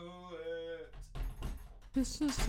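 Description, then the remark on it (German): An old apartment door creaks with a drawn-out, whining squeal, then shuts with a few rattling knocks and clunks as a dog is shut out. A voice follows briefly at the end. “Ich habe meinen Hund zum zweiten Mal ausgesperrt, weil sie die Tür aufbekommen hat.”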